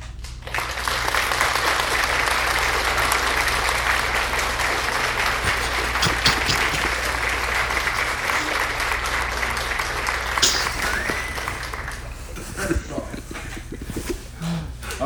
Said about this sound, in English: Please hold the applause. That was a long clap. Oh wow! They, they really love us. The live audience.